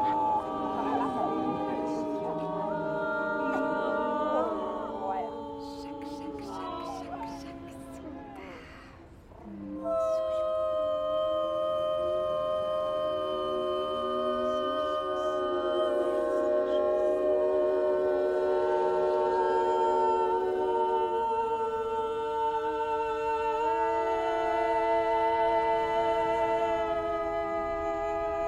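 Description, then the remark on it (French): Several women's voices in a film soundtrack hold long, wordless sung notes that slide and overlap into a continuous layered drone, thinning briefly around the middle before swelling back, steady and fairly loud. “Dans cet extrait, on entend les voix des trois femmes.”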